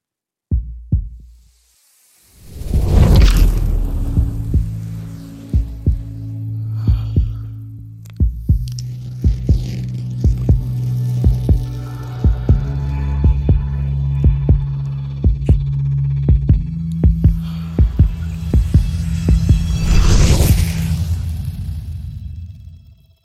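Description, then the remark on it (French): A warm, atmospheric sound design piece evoking the warm perfume Spice Bomb Infrared by Victor Rolf: deep sustained drones and a low hum, with heartbeat-like throbs pulsing steadily throughout and airy swells rising near the start and end. No voices. “Vous avez donc une touche de parfum, vous avez le son de Spice Bomb Infrared de Victor Rolf qui va être euh, joué.”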